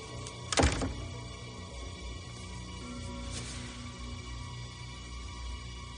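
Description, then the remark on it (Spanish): A bedroom door shuts with a solid thump early on, followed by a softer knock a few seconds later, over a quiet low room hum with no voices. “Emily cierra la puerta y se sienta pensativa en la cama.”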